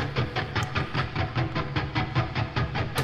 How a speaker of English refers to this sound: Oh, I know what it is. I'll tell you exactly what it is. it's, build it up now. Um, it's pick scrapes. So I took my guitar, I took my guitar pick,